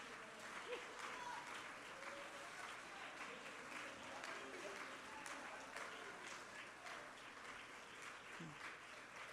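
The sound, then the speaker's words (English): An audience claps steadily and shouts to the Lord together, a dense, continuous wash of applause with scattered shouts rising over it for the whole stretch. “Would you just clap your hands and shout to the Lord?”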